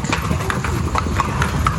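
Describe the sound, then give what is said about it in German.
Horse hooves clip-clop in a steady, quick rhythm, several horses trotting on firm ground in a trotting ring, with continuous low rumble and faint voices in the background. “So, da haben wir jetzt die Pferde im Trabring”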